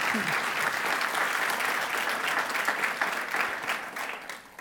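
Loud, sustained applause from a large crowd for the 'King of Kings', Jesus Christ: a dense, steady patter of many hands clapping that holds strong throughout before easing slightly at the end.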